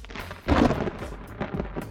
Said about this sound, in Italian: Ragazzi, da me piove. Anche questa mattina Roma è avvolta da nuvoloni scuri che non promettono niente di buono.